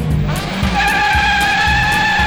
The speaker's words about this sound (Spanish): con los motores a pleno, ¿sí?